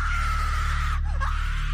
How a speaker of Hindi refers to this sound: फिर एक दिन हमारी बाई आंगन में बधी तार पर कपड़े डाल रही थी कि अचानक उसके चीखने की आवाज आई